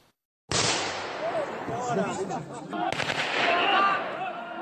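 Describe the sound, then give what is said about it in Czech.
AK-47 assault rifle gunfire, fired by a Belarusian soldier over the heads of migrants at the Belarus–Poland border, cracks out in rapid, sharp bursts over a loud, continuous wash of crowd noise and voices, the shots clustering more densely in the second half. “Migrantům, kteří se chtěli vrátit zpět do běloruského vnitrozemí, střílí nad hlavou a bráním tak v pohybu.”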